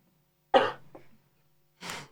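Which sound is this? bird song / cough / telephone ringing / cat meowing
cough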